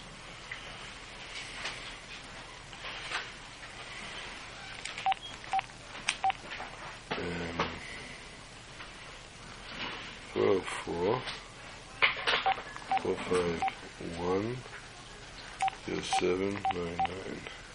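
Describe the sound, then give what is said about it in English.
Telephone keypad dialing tones, short beeps pressed in a few quick bursts, heard over a noisy line with muffled voices and clatter in the background. “This phone is very bad. Having a big problem with this phone.”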